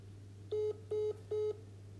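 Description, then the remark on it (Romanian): Three evenly spaced electronic telephone tones, each a steady beep of about a fifth of a second, sound alone over a low constant hum, like a phone dialing out to call back after the connection dropped. “Am pierdut semnalul, ți-am zis că aici e și tocmai te sunat.”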